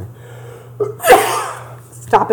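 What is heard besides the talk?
sneeze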